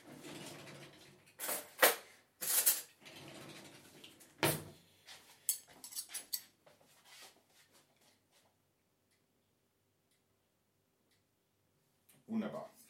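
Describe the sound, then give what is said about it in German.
A drawer is pulled open and cutlery clatters and clinks in several sharp bursts as someone fetches cutlery, followed by softer rummaging and quieter handling before a long stretch of near silence. “In der Zeit hole ich Besteck.”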